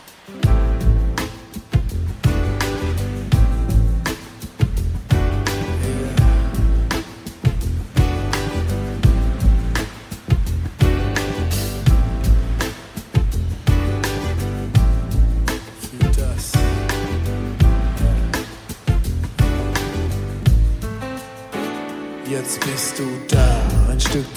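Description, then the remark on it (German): A laid-back, summery German hip-hop song plays loud and steady, with a regular thumping beat, warm bass and layered melodic tones running continuously without any vocals. “Sie hören die deutsche Hip-Hop-Gruppe … und den Song …”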